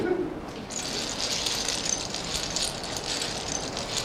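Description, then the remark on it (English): Lego bricks clicking and rattling in a steady, dense patter of small plastic clacks, bright and fairly loud, continuing without pause after a brief quieter start. “The sound Lego bricks make is also incredibly soothing.”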